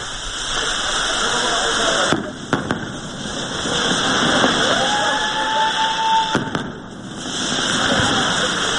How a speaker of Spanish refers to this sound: Y, y los fuegos de la, de la calle del medio, vamos a ver cómo suenan, a ver si, si se nota mucho la diferencia. La gente aplaudiendo, esta es la locura.